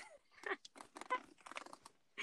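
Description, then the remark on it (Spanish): Loud crunching of crisp food being chewed, with a quick run of irregular brittle bites and crackles, no voices, ending in one last crunch. “¿Qué estabas haciendo? Estaba comiendo.”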